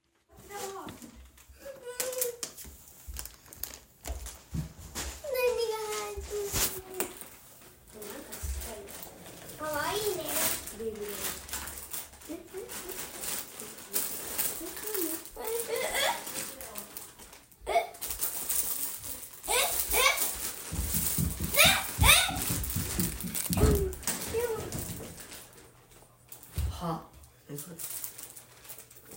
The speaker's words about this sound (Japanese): クリスマスの朝プレゼント見つけて開封までの時間3兄弟でわちゃわちゃしています